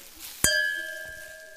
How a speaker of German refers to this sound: machst du uns zwei Gläser und eine Flasche Riesling fertig? Ah, …, endlich wieder Riesling und Fritte. Cheers!